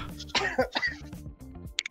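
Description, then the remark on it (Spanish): A person coughs sharply a couple of times, the harsh bursts followed by softer throaty rasps over a low background murmur. “¿Quién está tosiendo?”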